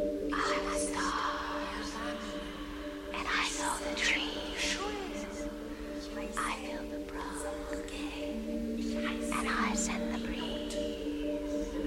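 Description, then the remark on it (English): Eerie, breathy whispering drifts over a steady low droning tone in a film soundtrack, the hushed voices rising and fading in irregular bursts without any clear words. “you can hear those like whisp that whispering in”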